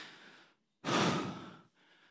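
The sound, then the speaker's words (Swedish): A slow breath drawn in, then a much louder, fuller breathy rush that swells for about a second before easing off into a softer exhale, portraying Jesus breathing again in the dark grave where he had been laid. No voices, just breathing. “Som vi sjöng i sångerna här, allting förändras i den stund när det här andetaget hörs i den mörka graven där Jesus hade lagts.”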